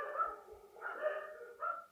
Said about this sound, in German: Und das war, oh, jetzt geht's hier kurz einmal richtig los. Es hat nämlich jemand geklingelt. Kleiner dann Hundechor. Rastet dann rastet der Hundechor aus.